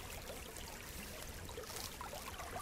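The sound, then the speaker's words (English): A steady, fairly quiet wash of running creek water with small bubbly trickles and gurgles popping through, continuous, with no voices. “Time to collect the tape from the creek.”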